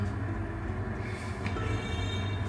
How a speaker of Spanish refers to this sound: Ay, a ver si no se oye la moto que acaba de pasar.